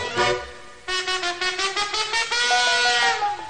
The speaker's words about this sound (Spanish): sopla esa trompeta como solo tú sabes hacerlo.